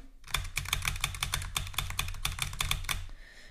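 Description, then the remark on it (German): Rapid, steady clacking of computer keyboard keys during gameplay, a dense run of sharp taps for about three seconds, with no voices. “Ich liebe meine Tastatur.”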